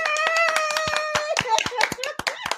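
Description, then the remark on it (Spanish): Hand clapping in a quick, irregular burst of sharp claps, heard over a steady, tuneful voice-like tone that holds throughout. “Un aplauso, empezamos bien original en esta miel de programa.”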